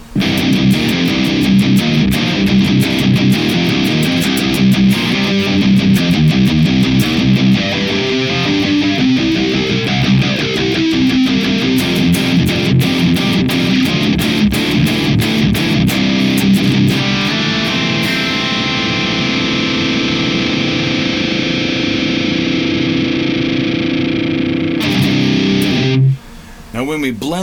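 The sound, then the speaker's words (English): Heavily distorted electric guitar played through a Plasma Kraken gated distortion pedal, run in stereo into the Neural DSP Archetype Nolly: chugging riffs with sustained chords, loud, cutting off sharply into silence near the end before a brief return. “All right, so when we uh, run the exact same stereo instance of the Plasma Kraken into the Neural DSP archetype Nolly, it sounds like this.”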